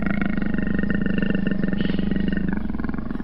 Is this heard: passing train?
no